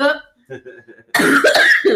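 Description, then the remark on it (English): A brief murmur of voices, then a loud burst of harsh coughing from people smoking that fills the second half, rough and breathy with some voiced rasp. “Oh yeah, guys, we are we we you hear, you know hear us coughing.”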